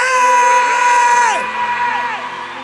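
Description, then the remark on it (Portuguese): An audience of many voices jumps up from their chairs, shouting and cheering together in a loud burst, several yells sliding downward in pitch before the noise eases off slightly. “Você pode dar um pulo dessa cadeira e gritar: Eu sou livre!”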